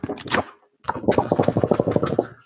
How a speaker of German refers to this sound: Hört man's? Hört man's? Ja, das hört man. Ach. Es ist dickes Papier. Ja, das ach, ist super. Äh, äh, ja, es ist dickes Papier. Es ist äh, haptisch, glaube ich, ganz gut gelungen.